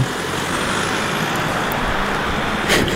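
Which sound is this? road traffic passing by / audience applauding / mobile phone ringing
road traffic passing by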